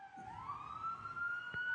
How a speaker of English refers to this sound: Look, you get the sirens again.